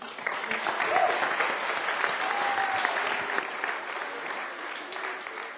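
Sustained audience applause, a dense, steady wash of many hands clapping at even loudness for several seconds, with a few faint whoops or voices briefly rising above it.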